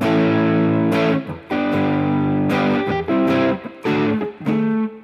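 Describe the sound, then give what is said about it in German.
A heavily distorted electric guitar with a Les Paul sound chugs through a loud, low typical heavy riff, with sustained power chords broken by short palm-muted stops and gaps in a choppy rhythm. No one speaks. “Äh, hier gibt es ja noch so, was gibt es denn hier so für typische Heavy Riffs, so.”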